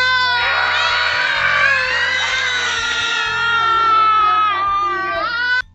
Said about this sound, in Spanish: Bueno, ahora vamos a hacer una actividad genial, que es una ronda de gritos.